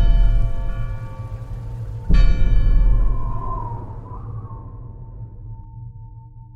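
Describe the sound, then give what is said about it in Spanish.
A deep old clock bell rings, striking three in the morning, struck once more partway through, its resonant tone humming and slowly fading away over a low, steady drone. “Y como cada noche, justo cuando el espectro desaparece de la ventana, la campana del viejo reloj marca las 3 de la mañana.”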